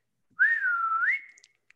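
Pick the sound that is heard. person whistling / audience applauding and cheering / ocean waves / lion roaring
person whistling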